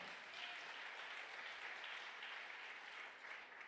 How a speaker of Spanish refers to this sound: Vamos, denle el aplauso fuerte.